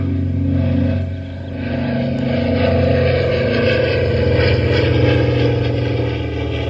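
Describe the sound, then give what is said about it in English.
A small signal plane's engine drones loudly and steadily overhead on a windless day, a continuous buzzing roar that dips briefly before holding strong, with no voices. “I mean, take a look and a listen. I mean, there's a signal plane.”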